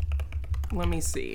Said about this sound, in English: Sorry for the typing noise.